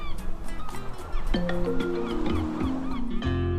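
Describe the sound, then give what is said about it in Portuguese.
Seagulls call repeatedly and loudly at Nazaré, their harsh, squawking cries overlapping over a steady low rumble of background noise, with no voices. “Mas isso as gaivotas já sabem.”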